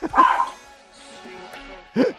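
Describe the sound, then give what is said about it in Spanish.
A dog gives two loud barks, one at the start and another near the end, separated by a short, quieter pause with faint background sound. “Los perros también, dale de comer.”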